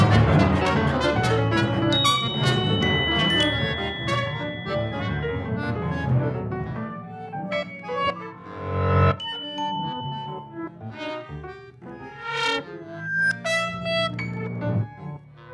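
A short instrumental music interlude with no voices: a dense, layered passage for the first half, then thinning into sparse, electronic-sounding tones and brief rising sweeps at a steady moderate level.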